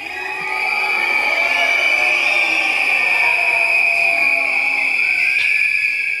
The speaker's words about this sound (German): Ein gellendes Pfeifkonzert schlägt dem großen Bildschirm auf dem Deutschen Apothekertag in Düsseldorf heute entgegen.